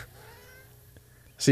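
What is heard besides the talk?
cat meowing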